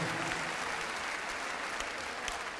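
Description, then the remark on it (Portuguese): A crowd applauds steadily, many hands clapping in a dense, even wash of sound that stays at a constant loudness throughout, with no voices standing out. The applause is for the drummer, Joaquim Souza, during the band introductions at a concert. “Uma salva palmas para ele.”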